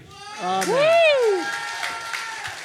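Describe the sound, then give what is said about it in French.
Audience applause with a rising-and-falling whoop from a cheering voice over steady clapping, moderately loud, lasting a few seconds. “Applaudissez.”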